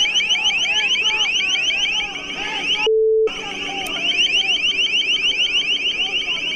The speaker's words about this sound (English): The sound that you're hearing is a crowd control tactic. It's, it's ear piercing. It actually hurts your eardrums.